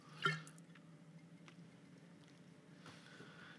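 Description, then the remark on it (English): A quick sip straight from a bottle: a brief liquid slosh and gulp near the start, followed by quiet background hum and a few faint wet clicks, with no talking. “Do you want a little sip out of that bottle so you can tell us about the palate?”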